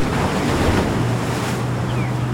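Steady roar of North Sea surf washing against the shore at Aberdeen, Scotland, mixed with gusting wind buffeting the microphone, with a low constant rumble underneath and no voices.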